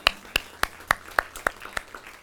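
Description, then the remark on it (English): A church audience applauds in a run of about eight sharp, evenly spaced claps in a steady rhythm, moderately loud, with no voices over them. “So that's worth applauding.”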